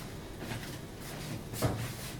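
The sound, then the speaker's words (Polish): Quiet plastic twisting and scraping as the cap of a bottle of beetroot concentrate is unscrewed while cooking, with a brief sharp click near the end as it comes loose. No one is speaking. “Odkręcamy po prostu butelkę”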